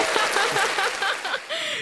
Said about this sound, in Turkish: Seyircileri evet. alkışlayalım. Seyircileri bir alkış alalım, Dinleyicilere.